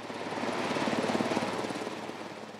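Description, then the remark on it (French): A water-bombing firefighting helicopter in France flies by, its rotor chopping in a fast, steady pulse over a loud, broad engine roar that holds level throughout, with no voices. “il faut des moyens, comme des hélicoptères et avions bombardiers d'eau”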